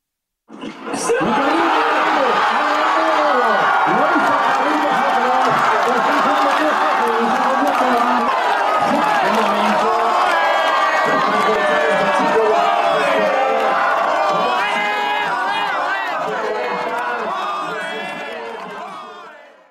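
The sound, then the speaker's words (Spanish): A large crowd of villagers in El Palmar, Murcia, Spain, watching a tennis match on giant screens, shouts, chants and cheers nonstop, a dense roar of many overlapping voices with bursts of laughter and whoops, loud, rising quickly and fading slightly near the end. “Hubo gritos y cantos y fiesta.”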